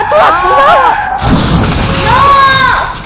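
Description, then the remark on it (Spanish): A sudden crashing impact of a car striking a person, a short burst of thudding noise set between wavering, wailing tones that rise and fall before and after it. “Oye, como que te atropellaron.”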